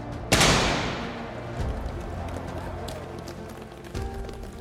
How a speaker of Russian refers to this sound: И вот раздался выстрел к старту.